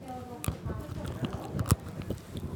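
A quiet mouth sound of biting into and chewing chocolate containing popping candy, with scattered sharp crackles and tiny pops sprinkled irregularly through it as the sugar inside dissolves.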